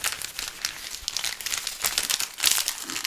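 Gift wrapping paper crinkles and rips as a present holding a frisbee golf disc is opened, a steady run of crisp, loud rustling bursts and tearing sounds with no one speaking.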